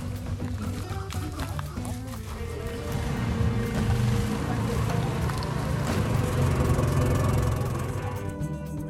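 A boat motors steadily across water in the jungle, its low engine drone and churning wash continuous, swelling slightly louder midway through before easing near the end.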